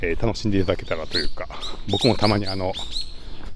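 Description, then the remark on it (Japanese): Wild birds chirp and sing in the background on a morning walk deep on Mount Daimonji, outdoors in a forest-like setting, while a man talks steadily over them; the calls are faint, high and scattered. “ちょっと奥に来たらですねこの鳥がいつもと全然違う鳥のいっぱい鳴いてまして今日はちょっとかなり鳥の声多めでお届けしました、えー、環境音的に鳥の鳥たちの鳴き声を、”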